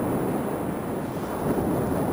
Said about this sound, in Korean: 다, 당신들 말이 맞소. 이 폭풍은 나 때문에 일어난 것이요.